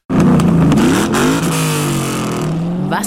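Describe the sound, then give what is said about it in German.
The V8 engine of a new 2014 model-year Ford Mustang muscle car revs hard, its deep throaty roar rising and shifting in pitch for about three seconds, loud, with no voices. “Was für ein Sound. In sechs Städten auf vier Kontinenten wurden die Vorhänge gelüftet für den neuen Ford Mustang, Modelljahr 2014.”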